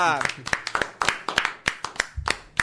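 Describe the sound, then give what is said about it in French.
Applause from a small group for a live performance broadcast on Radio Puisalène, at an event with the association Le Talent des Seniors, with sharp individual claps in a fairly steady, quick rhythm, about four per second. A brief voice can be heard at the very start. “Bravo, on peut l'applaudir bien fort.”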